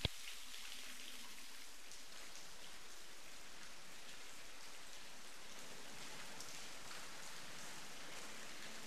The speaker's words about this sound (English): And the shower scene